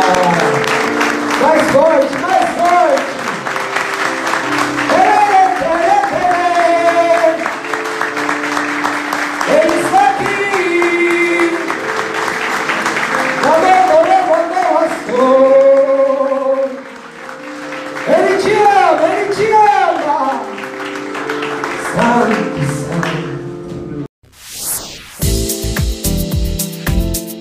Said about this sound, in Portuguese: Dá uma salva de palmas.